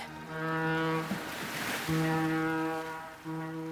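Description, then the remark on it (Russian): A passenger ferry's deep horn sounds in long, steady blasts, broken by a burst of rushing water and surf, then blowing again as it enters Queen Charlotte Sound and moors at the pier in Picton. No one speaks. “паром с путешественниками на борту – вошел в залив королевы Шарлотты и пришвартовался у пристани в Пиктоне.”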